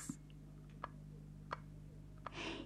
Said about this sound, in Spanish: Estos ya estaban durmiendo, cansados del ensayo, y en eso oyeron unas pisaditas.